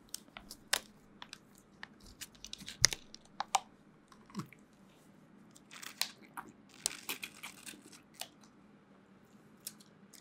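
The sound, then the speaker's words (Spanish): A snack package is torn open for ASMR, with irregular crisp crinkles and sharp crackling snaps, some louder than others, scattered over several seconds with quiet rustling in between and no voices. “Vamos a abrir un reca.”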